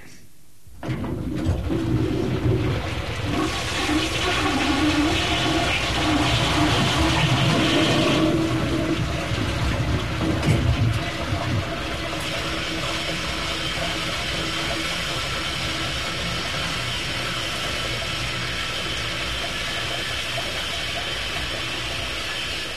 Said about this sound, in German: So, wir haben jetzt das Geräusch, war interessant, oder? Wir haben jetzt das Geräusch einer veralteten Toilettenspülung.